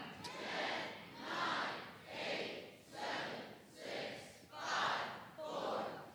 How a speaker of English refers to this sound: Everybody put up 10 fingers and count from 10 to 0 and get rid of a finger as loud as you can. Start counting and yell it loud when I say now. Now.